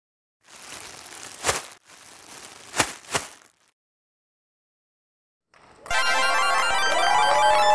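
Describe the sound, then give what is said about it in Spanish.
A plastic bag rustles and crinkles for a few seconds with several sharp, loud crackles. A pause of silence follows, then a steady, dense, bright noise begins and continues to the end. “Esto ha sido una bolsa de plástico que hay que tirar en el contenedor amarillo.”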